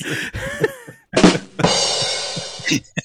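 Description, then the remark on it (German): A single sharp, noisy sneeze bursts out after a brief voiced sound, followed by a stretch of breathy, rustling noise and a few faint clicks. “Gesundheit.”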